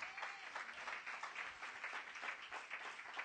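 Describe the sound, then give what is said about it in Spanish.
A crowd applauds itself, a dense wash of many hands clapping at once, sustained and fairly loud for the full few seconds with no voices standing out. “Ahora, dése un aplauso Amen. usted mismo.”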